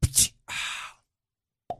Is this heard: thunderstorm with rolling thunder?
no